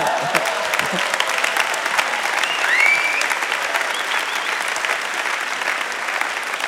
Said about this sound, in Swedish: vi ger honom en applåd.